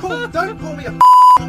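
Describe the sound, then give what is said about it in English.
A loud, steady electronic censor beep covering a swear word cuts in abruptly for about a third of a second right after a man's excited, laughing speech, then the talking resumes. “I had to edit a beep in yeah. there because that swear word, whatever it was”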